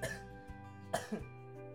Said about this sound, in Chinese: 大家应该不会一直听我咳嗽，我就把这集关掉吧。呃，忠实的呈现给大家，我真的是在哦确诊完之后还是很不舒服。